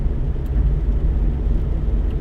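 A steady, deep rumble of road noise from inside a moving, somewhat worn 2015 car, continuous and fairly loud, with a low whirring drone and no voices.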